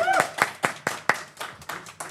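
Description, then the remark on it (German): A short run of about nine sharp hand claps in an irregular rhythm, bright and snappy, with faint background chatter underneath. “Applaus, also wirklich jetzt mal eben.”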